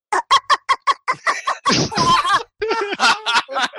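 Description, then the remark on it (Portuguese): A voice imitates the quacking of Donald Duck, starting with a quick run of short, raspy squawks, then breaking into longer buzzy, garbled bursts, loud. “Terceiro pato Donald aí com a diva agora.”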